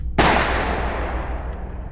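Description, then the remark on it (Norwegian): A single loud pistol shot, fired by a man with the pistol pressed into Oswald's stomach in a parking lot, cracks out sharply, then its echo lingers and slowly fades over the next couple of seconds. No voices are heard. “Før noen rakk å reagere, hadde mannen trukket en pistol fra bukselinningen, gått helt fram til Oswald og stukket pistolen rett inn i magen hans. Så lød et høyt smell.”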